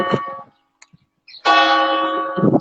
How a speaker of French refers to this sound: pour ceux qui arrivent à m'entendre au-dessus des cloches